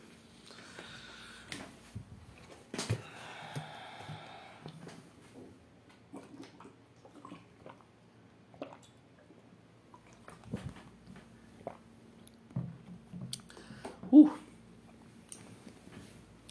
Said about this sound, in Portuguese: Deixa eu tomar uma água aqui que tá foda.